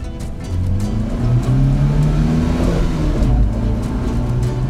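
A car engine revs up loudly and accelerates as the car is driven to the fire department, its deep rumbling tone climbing steadily in pitch over a few seconds, continuous, with no voices.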